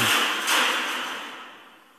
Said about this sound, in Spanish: No, solo la silla se cayó.